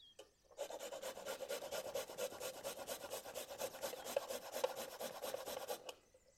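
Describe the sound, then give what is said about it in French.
A garlic clove is grated against a fine rasp into tomatoes in quick, steady back-and-forth strokes, a dry scratching that runs continuously for several seconds with no talking. “Et vous allez râper ou presser votre gousse d'ail dans vos tomates.”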